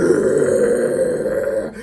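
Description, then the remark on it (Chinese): A person imitates a heavy metal concert growling scream: one loud, raspy, low, guttural roar held steadily for almost two seconds, then cut off abruptly, with no other talking. “你你要这样子吼，然后整场演唱会可能要吼三个小时到四个小时，对，那种体力要有多好”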